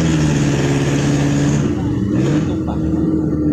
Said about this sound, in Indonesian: sorry sorry ada suara mobil